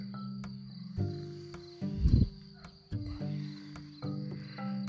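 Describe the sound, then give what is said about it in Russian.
A steady, high-pitched trill of crickets drones continuously in the background, joined by lower humming tones and a few soft thumps, with no talking. “Слышите, как сверчки. Я даже не знаю, как эти насекомые называют цикады.”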